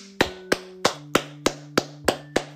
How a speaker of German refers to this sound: Ich kann dafür nur einmal klatschen. Warte.